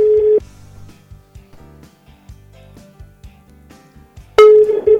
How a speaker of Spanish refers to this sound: No va a atender. Va a atender. Sería un acto de cobardía. Sabe que le está sonando el teléfono.